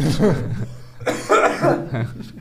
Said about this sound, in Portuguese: Não, é que isso aí quando tosse é porque pegou mesmo. Ah, pegou. pegou.